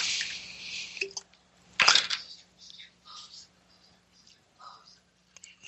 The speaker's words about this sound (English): So I'm going to pour another here.